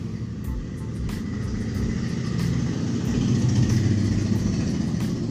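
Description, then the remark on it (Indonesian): A very loud motorcycle engine rumbles steadily, its low growl swelling slightly as it passes, with faint ticking clicks above the roar and no one speaking. “berisik itu motor sumpah itu, itu, itu motor paling berisik”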